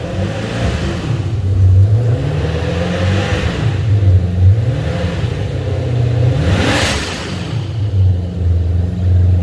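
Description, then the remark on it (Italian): A turbocharged car engine idles at about 1500 rpm with a steady low rumble and whirring turbo whine, its pitch drifting up and down in gentle swells, with a brief sharp rev around the middle. “sono le turbine incazzose ma la sto facendo girare al minimo eh.”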